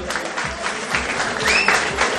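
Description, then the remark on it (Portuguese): An audience claps steadily in tribute to a performer whose work they are fans of, a dense, continuous patter of many hands with a few brief cheering tones rising over it, fairly loud throughout. “Salve, de palmas”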